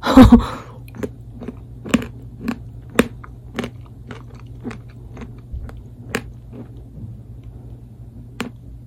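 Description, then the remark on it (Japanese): A loud bite into a hard chocolate-coated ice bar that is about 30 percent chocolate, followed by steady crunchy chewing: sharp, crackling crunches repeating roughly every half second over a faint low hum, with no talking. “ゴリッゴリのアイスバー音”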